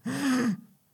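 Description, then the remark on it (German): A person imitates the rattling, wheezing breath of a character in a dungeon scene: one short, raspy, voiced intake of air lasting about half a second, fairly loud, then quiet. “Ähm, er röchelt ja auch so ein bisschen am Anfang.”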